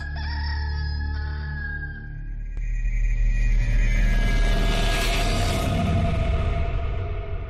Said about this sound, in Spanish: Pedro volvió a negar y enseguida cantó un gallo.